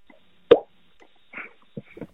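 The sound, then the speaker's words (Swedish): A hollow, resonant pop from flicking a cheek with the mouth shaped into an O, sharp and loud at first, followed by a few softer, quicker pops, with no talking. “Men det är, vet när man formar munnen till ett O och så knäpper man sig själv på kinden.”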